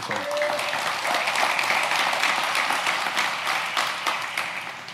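A crowd applauds during a sermon, with many hands clapping in a dense, sustained wash of sound that holds for several seconds before easing slightly at the end.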